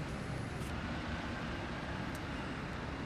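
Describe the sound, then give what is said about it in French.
A steady, low rumble of street traffic on Whitehall in London, with a long queue of idling red double-decker buses droning continuously at moderate volume, with no clear voices or distinct events standing out. “Et là, donc, je continue à descendre au Whitehall et alors tout le long, euh, toujours euh, de cette longue file d'attente de euh, bus à deux étages rouges, et eh bien je vois poindre Big Ben”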